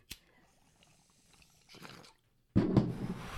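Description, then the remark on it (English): A sharp click, a short rustle, then a loud, steady splash of Dunkin' Donuts unsweetened zero-sugar coffee beverage being poured into a cup, with no one talking. “I guess I'll just uh, pour up a coffee drink and we'll get going on.”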